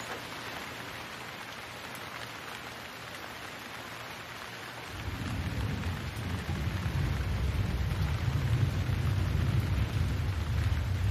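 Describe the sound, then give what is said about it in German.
Steady rain hisses throughout, and about halfway in a deep, rolling rumble of thunder swells up beneath it and keeps growling to the end, with no voices. “Nimm tiefe Atemzüge und nimm die Musik des Regens und des Gewitters in dir auf.”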